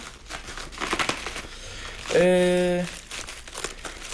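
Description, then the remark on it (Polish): Continuous crinkling and rustling of plastic film that is hard to unwrap as it's pulled off, with a brief hesitant voiced filler sound from a speaker partway through. “Jednak i tak trochę trzeba będzie wydłużyć, bo oczywiście folia nie jest taka w... E, prosta do odpakowania.”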